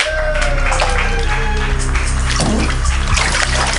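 An audience claps wildly, a loud, dense wash of many hands clapping steadily for the full length without letting up, with no talking over it.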